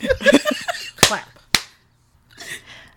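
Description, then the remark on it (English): Two sharp, bright hand claps about half a second apart, made as an editing sync marker at the start of a show recording, following a burst of voices and laughter, then a short pause before faint voices return. “Clap.”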